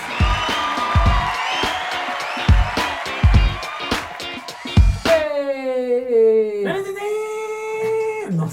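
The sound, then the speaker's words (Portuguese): A live audience claps and cheers with scattered whoops for about five seconds to welcome a guest performer, then the clapping drops away and a long, wavering vocal howl rises over the crowd. “palmas!”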